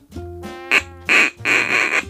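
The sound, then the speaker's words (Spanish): Raspy, honking squawks from toy rubber roosters trade back and forth in several loud, close bursts, one short and others drawn out, with no talking. “Bueno, vamos a hacer una buena guerra de gallos.”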